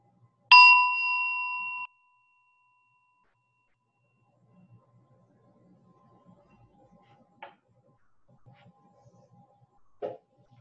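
A single bell strike rings out clearly with a bright, sustained tone that lingers for over a second, a cue to slowly open the eyes and reconnect with the surroundings. It then falls into near silence broken only by faint rustles and a couple of soft knocks.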